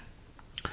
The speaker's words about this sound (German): Hört mal eben. Was ihr eben gehört habt, ist das Öffnen unserer selbstgemachten Orangenmarmelade.